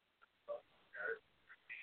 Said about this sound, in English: Oh, I have a beatboxing parrot also. You know. I just figured I'd mention him because I was worked on working on him for a while.